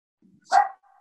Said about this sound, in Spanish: Si, larga muy fuerte el perro, avísame si se, se tapa la